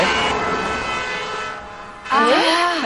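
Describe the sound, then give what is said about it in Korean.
A wailing vehicle siren passes by, loud, its pitch rising and falling in sweeping harmonic tones before surging again near the end, a Doppler shift as the vehicle approaches and passes. “자동차가 우리한테 다가오면 소리가 커지다가 어, 지나가면 갑자기 정막이 찾아오죠.”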